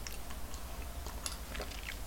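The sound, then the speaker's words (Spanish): Quiet mouth sounds of someone sipping coffee: a few soft slurps and small wet clicks over about two seconds, with no talking. “si estamos despidiendo semana e inaugurando mes, así que me voy a dar un sorbito por ambas celebraciones.”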